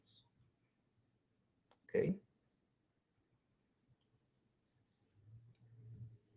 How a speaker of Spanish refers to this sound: Bien, aquí ya este, le di un clic a una opción.